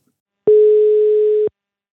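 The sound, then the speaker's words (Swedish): A single telephone ringback tone: one steady, clear, fairly loud electronic hum lasting about a second, then silence. No one speaks. “Så vi ringer Sören Tang”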